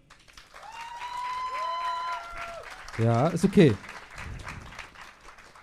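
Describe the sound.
An audience claps steadily for several seconds for a named contestant in an applause vote, a sustained high whoop rising over the applause early on, while a voice speaks briefly partway through before the clapping tapers off.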